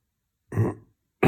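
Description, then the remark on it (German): Someone clears their throat twice in quick succession: a rough, guttural rasp, then a second short burst a moment later. There is no talking. “ein bisschen räuspern. Geht schon wieder.”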